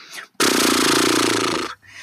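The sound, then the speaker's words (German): A person blows a loud, horse-like lip flutter as a warm-up exercise to loosen the lips and make them agile, a rapid buzzing trill of the lips with a voiced hum underneath, lasting just over a second, then stopping abruptly. “Dieses Schnauben, das”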